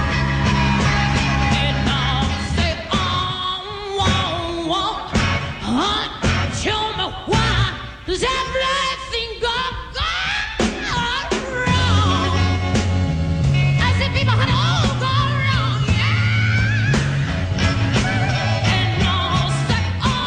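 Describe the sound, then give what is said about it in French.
A loud live song recording, a female singer belting in a strained, screaming style over dense full-band accompaniment that stays intense and continuous from start to finish. “C'est une version live qu'on entend.”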